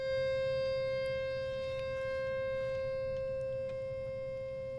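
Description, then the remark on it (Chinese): A single accordion note, played by pressing one key without moving the bellows, sounds steadily for about five seconds. It is a reedy mid-pitched tone with bright overtones that slowly grows fainter as it holds, with no talking over it. “好，那再做一次刚刚我们只有按按键，但是呢不动这个风箱的时候的声音，再听一次哦。”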